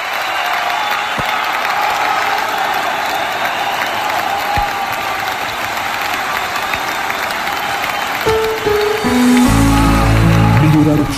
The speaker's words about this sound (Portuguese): Para salva de palmas para toda a gente que esteve atento conosco esta hora.